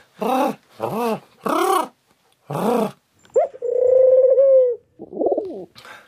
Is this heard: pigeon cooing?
yes